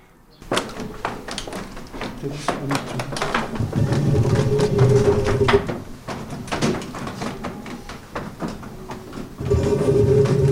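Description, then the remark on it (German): The heavy wooden mechanism of a windmill, turned manually from inside with the sails not covered, creaks and rumbles into motion, with repeated knocks and clunks over a low grinding drone and a steady mechanical hum, fairly loud throughout. “Und nun haben wir das ganze Ding manuell von, von innen betätigt.”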